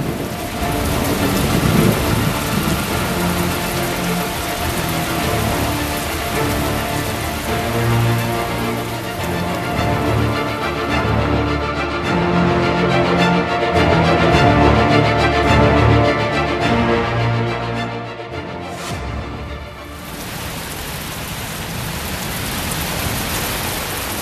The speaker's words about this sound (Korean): 아, 그때 창밖에서 우르릉 소리가 나더니 굵은 장대비가 쏟아지기 시작했다.